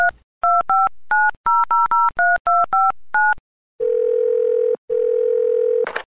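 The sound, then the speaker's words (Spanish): A quick run of about a dozen telephone keypad tones beeps out a number to call the Reyes Magos (Three Kings), then a steady, loud dial tone hums with one brief break. No one speaks. “¿Qué te parece si les marcamos y se lo dices por teléfono?”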